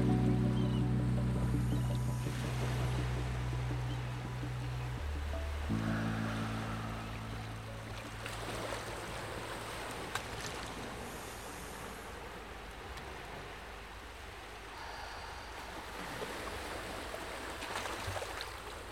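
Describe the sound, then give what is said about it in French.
Steady rushing river water flows continuously, a broad wash of noise growing stronger, with a low droning hum underneath during the first few seconds; no one speaks. “les eaux du fleuve vous interpellent de plus en plus fort.”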